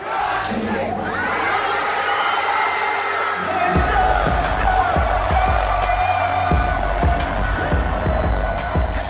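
A large concert crowd roars and cheers wildly at night as the awaited performer comes out on stage, a dense, sustained wall of shouting and whoops that never lets up, with deep thumping bass pulses joining partway through.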